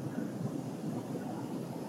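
Airplane cabin noise in flight at about thirty thousand feet, heard from the last row of seats: a steady, unbroken roar of deep rumble and airy hiss that holds at an even loudness throughout, with no voices.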